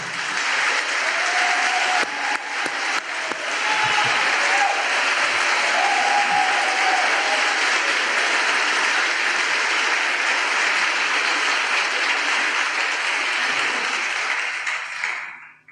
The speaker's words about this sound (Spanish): Quiero que le demos un cariñoso aplauso